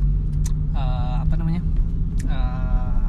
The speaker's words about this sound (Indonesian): ya ada di jalan tepatnya jam 20.17 nih kebetulan lampu merah dan sebelah ada motor semoga nggak ganggu ya atau nanti kita nunggu dia lewat aja nih motor berisik